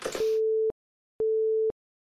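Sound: telephone busy tone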